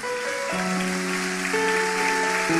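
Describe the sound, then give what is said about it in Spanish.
A church audience applauds in gratitude to God in a steady, dense wash of clapping, with sustained organ or keyboard chords shifting underneath. No voices stand out. “Pero, sí, dele, dele fuerte ese aplauso de gratitud al Señor.”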